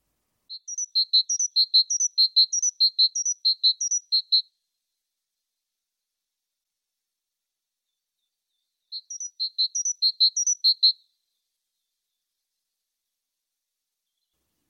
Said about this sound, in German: Es gibt diesen Vogel in der Ausführung mit schwarzer und mit blauer Haube. Sehr schön, eine Meise. Genau, eine Kohlmeise in dem Fall.